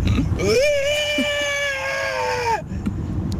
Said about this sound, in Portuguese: Ela faz um som de elefante. Aqueles elefantes africanos